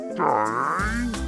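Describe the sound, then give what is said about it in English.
A voice imitates a hungry, empty stomach growl: a single drawn-out, wavering rumble that slides in pitch and drops into a lower, buzzing groan, loud, with no other sounds. “Yes, that's the sound of my empty stomach.”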